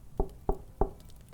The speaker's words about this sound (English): he soon arrived and headed up to his house just as he tried to open the door, he realized it was locked. What the? He knocked on the door.